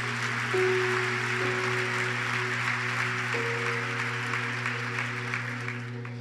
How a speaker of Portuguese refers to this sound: Amém? Vamos aplaudir a Jesus então por isso?